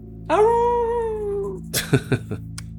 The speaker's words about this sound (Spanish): Al descender del móvil, escucho los perros de todo el pueblo aullar.